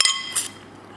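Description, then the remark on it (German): Two bright clinks of wine glasses in a toast with Grauburgunder: a sharp ringing tap followed by a second chime, then a soft resonant ring fading away. “Und das ist unser Lieblingsgeräusch. Prost.”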